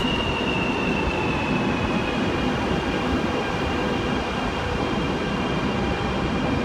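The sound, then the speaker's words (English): A train rumbles steadily while a high, thin whine slowly drops in pitch as the train brakes and comes to a stop. Nobody speaks. “and whilst we wait for our train here to come to a stop”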